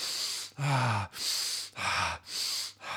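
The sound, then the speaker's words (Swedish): A person demonstrates hyperventilation: rapid, forceful breaths alternate in and out, about five loud gasping inhales and exhales in three seconds, a deliberate hyperventilating rhythm with no talking. “när man andas sådär intensivt hyperventilerar gör man ju”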